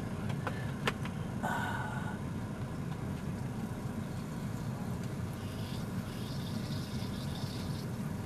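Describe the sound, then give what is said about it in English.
Urine spilled from a cup pours and splashes in a continuous stream over a low, steady rumble, with a few sharp clicks early on and a brighter trickling stretch near the end; no one speaks. “I mean, I spilled it.”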